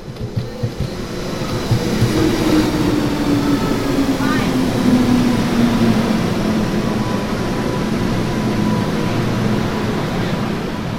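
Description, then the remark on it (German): A Hong Kong subway train rolls along with a steady, loud rumble and clatter, a motor whine gliding slowly downward in pitch for the whole stretch. “Am Rande der Sahara holt mich doch glatt die U-Bahn von Hongkong ab.”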